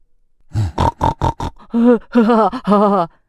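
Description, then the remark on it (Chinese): A voice imitates a pig: five quick, rough grunts in a steady rhythm, followed by three longer, wavering nasal oinks, all loud and with no other sounds around them. “”嗯，哼哼叫才会有人拥抱它。”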